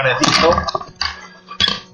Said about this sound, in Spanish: Perdón, que acabo de tirar el micro.